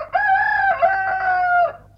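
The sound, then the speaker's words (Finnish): A rooster crows once from a cuckoo clock, a loud, drawn-out cock-a-doodle-doo lasting under two seconds, with no talking. “Tää on aito käkikello niinku luvattiin. Käki on lähtenyt jo muuttomatkalle maille. Ei tää nyt enää kuku ennen kuin ensi vuonna. Hyvä, että edes kiakuu.”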